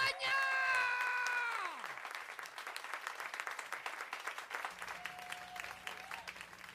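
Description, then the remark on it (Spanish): A bright, buzzy tone slides downward and fades, giving way to steady, dense applause from an audience welcoming Manuela in the Puerto Rican comedy-drama film Manuela y Manuel, many hands clapping continuously at a moderate level until the end. “¡Aplaudan,”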